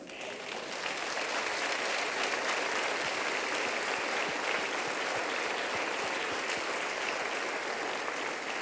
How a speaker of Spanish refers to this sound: ¿No le quiere dar un aplauso a Cristo?